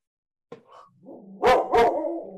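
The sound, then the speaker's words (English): A dog lets out two loud, sharp barks in quick succession, preceded by a softer short yelp and low grumble, with no one talking. “I'm so sorry. My dog's yeah.”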